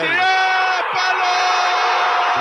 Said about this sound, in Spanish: Escucho los gritos de la gente allá, pues yo, yo estaba ahí en la tribuna olímpica